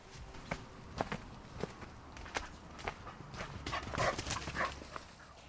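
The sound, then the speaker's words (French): A dog gives a few excited yelps and whines around the end, eager to go and play, mixed with steady crunching footsteps walking outdoors through a garden, all fairly quiet. “on entend le chien qui se déchaîne, qui a très envie d'aller jouer.”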